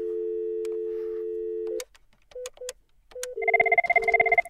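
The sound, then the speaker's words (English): A steady telephone dial tone, then a few short dialing beeps, and finally a loud, rapidly pulsing ringing tone on the line as a call is placed from a physical phone to a virtual phone on a GNS3 virtual network, with no voices. “You hear the phone ringing.”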